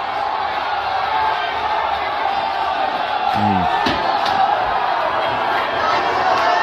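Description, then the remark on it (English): A large crowd of UCLA basketball fans roars with screams and cheers as their team ties the game and wins at the last second, a dense, steady wall of noise throughout, while one voice briefly murmurs over it. “This is UCLA fans.”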